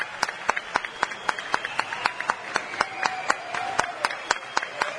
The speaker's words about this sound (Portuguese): Eu acho que ele merece mais aplausos, gente. E de pé.